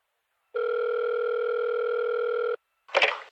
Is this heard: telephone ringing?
yes